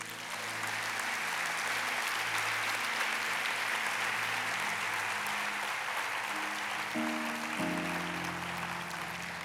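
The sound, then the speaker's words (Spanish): An audience applauds for God during a church service, steadily for several seconds, a dense, even clatter of many hands, while sustained low keyboard chords hum underneath and shift to new notes near the end. “¿Cuánto le pueden dar un aplauso a Dios?”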